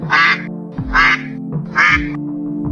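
A goose honks three times in a loud, evenly spaced series, each call nasal and brassy, heard up close with no talking.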